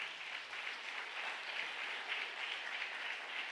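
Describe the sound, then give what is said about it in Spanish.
An audience breaks into loud, sustained applause, a dense crackle of many hands clapping steadily for several seconds with no voices over it. “¿Cuánto le da un aplauso fuerte?”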